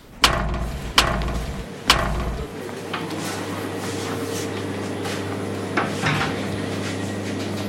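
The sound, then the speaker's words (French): A metal gate slams shut, iron striking iron, with three sharp, loud clangs spaced about a second apart, followed by a steady low mechanical hum and one fainter clank near the end. “Parce que moi, quand je sors ou quand je rentre, je n'attends pas jusqu'à la fin, je n'attends pas euh, jusqu'à ce que le portail se claque. Bah, en fait, c'est un peu comme du fer qui se qui s'éclate à du fer.”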